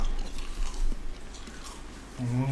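Crunching and chewing of a crispy snack, a string of crackly bites, with a voice briefly starting at the very end.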